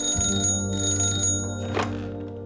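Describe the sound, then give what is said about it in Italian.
A telephone rings in Yves Saint Laurent's studio in autumn, with a steady, metallic bell tone that holds for a couple of seconds, fairly loud, with no voices. “Lo stilista è assorto tra i suoi pensieri quando improvvisamente squilla il telefono.”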